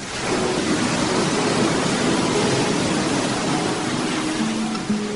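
A steady, full rush of ocean surf fills the whole clip, loud, a continuous hissing wash of breaking water with no clear pauses between waves and no voices.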